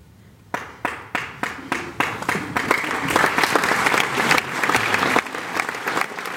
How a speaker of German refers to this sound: Am Ende sind nicht nur die Schauspielerinnen geschafft, auch das Publikum verpasst beinahe den Einsatz für den Schlussapplaus. Als versehentlich wieder das Bühnenlicht angeht, der Saal aber dunkel bleibt.